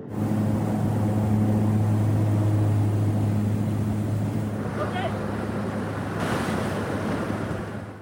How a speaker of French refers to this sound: Ce petit bimoteur va larguer le groupe de commandos à 5000 mètres d'altitude et surtout à 15 km de leur cible.